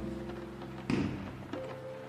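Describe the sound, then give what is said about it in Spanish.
Two muffled firecracker bangs go off outside, one after the other about half a second apart, over a low steady background hum. “Ándale, aquí ya están tirando granadas.”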